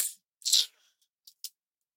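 A few crisp, papery bursts of a deck of question cards being shuffled, two longer rustling riffles followed by a couple of short snaps, with no talking.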